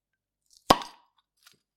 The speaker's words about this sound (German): komm, wir machen mal gerade das Kölsch auf, ne?